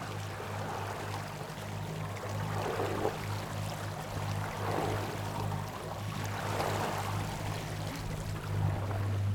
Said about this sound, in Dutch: Wat jullie horen is een golf van biscaya jongens. Klinkt die anders dan het IJsselmeer?